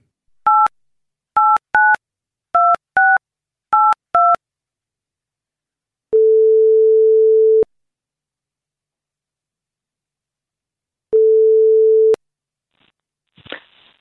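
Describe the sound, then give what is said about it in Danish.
A quick run of touch-tone keypad beeps, then two long, steady ringback tones separated by a pause, ending in a soft click as the line is picked up. “Så hende ringer vi lige til.”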